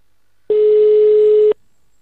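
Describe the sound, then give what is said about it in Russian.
A single steady telephone ringing tone, one loud mid-pitched beep lasting about a second, with quiet before and after, as a call to the Tsvetlit plant goes unanswered. “Слушай, трубку не берут.”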